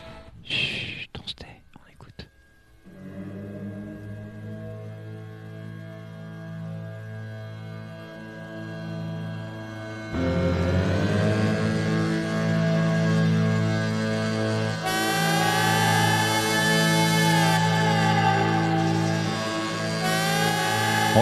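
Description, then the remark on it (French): A rock music intro jingle opening a recurring show segment: after a short burst of noisy rustling, sustained droning chords swell and grow louder in stages, building into a thick, layered wall of sound with no talking. “Elle commence toujours par un générique qui, qui, qui fait plombe, Ça plombe.”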